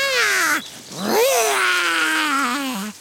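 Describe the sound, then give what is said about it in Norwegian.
A voice imitates a small lion's roar, made by an ant dressed in a lion costume: two drawn-out, growly vocal roars, the first falling in pitch, the second rising then sliding slowly down, loud and alone without speech. “Jeg er faktisk en skummel, skummel løve.”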